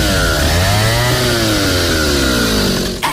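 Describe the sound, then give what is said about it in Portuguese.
A Stihl chainsaw engine runs loudly and steadily, its pitch rising and falling slightly as it revs, before a brief sharp change near the end. No one speaks. “O motosserra mais completo da Steel te proporciona leveza, potência e agilidade para o seu trabalho”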